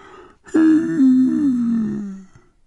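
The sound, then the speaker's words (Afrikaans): A single drawn-out voiced yawn, sliding slowly downward in pitch for about a second and a half before trailing off, with no talking around it; a person performing the yawn of the character Mavu in an Afrikaans children's story. “Mavu gaap.”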